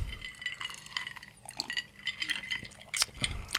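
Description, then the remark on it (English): Several glasses clink together during a toast, bright ringing taps scattered over a few seconds with a faint rattle and slosh of liquid in between. No one speaks. “Hey, cheers. Welcome. Cheers.”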